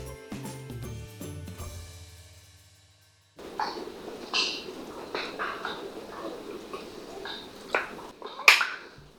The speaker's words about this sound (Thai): ได้ยินไหมคะเหมือนคนดีดนิ้วเลยค่ะจะมีใครรู้ไหมนะว่านี่คือเสียงอะไร เก่งมากค่ะ ใช้แล้วมันคือกุ้งดีดขันทุกคนที่อยู่ในป่าชายเลนวันนั้นได้ยินแต่เสียงแต่ไม่มีใครเห็นตัวกุ้งดีดขัดเลยสักคนนึงค่ะ